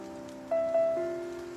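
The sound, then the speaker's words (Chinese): Drizzling rain outside a moving car, growing more urgent as the car speeds up, makes a steady, soft hiss of pattering drops. A few sustained tonal notes ring faintly over the noise partway through, and no voices are heard. “车外随着车速的提高，那蒙蒙的细雨显得越发的急了。”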